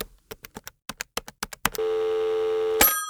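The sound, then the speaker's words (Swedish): A quick run of about ten phone keypad presses as a phone call is placed, followed by a steady, loud electronic ringing tone that holds to the end, with a brighter tone layered in near the finish. “Har du nummer? Ja. ja. Då ringer vi här.”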